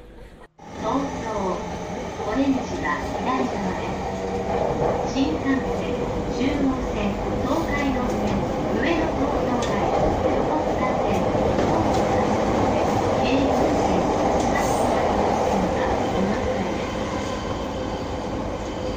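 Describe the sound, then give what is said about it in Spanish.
Busy train station ambience in Tokyo, Japan, with trains rumbling and rolling through: a steady dense wash of mechanical noise, faint wheel clatter and murmured voices of people in the background. “Tengo que seguir caminando en esta estación nos escuchamos la próxima semana en otra plática en estas bonitas estaciones de trenes aquí en Tokio.”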